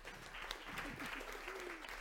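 An audience applauds steadily, dense overlapping claps filling the room at a fairly even level for a couple of seconds, with faint voices murmuring underneath.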